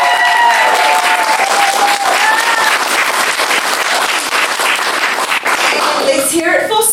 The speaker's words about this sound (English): Let's hear it for the evil vampires.